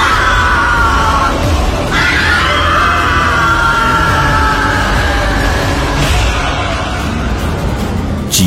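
A man screams and yells in terror, long strained cries rising and falling in pitch over a loud, continuous rumbling background, close and intense throughout.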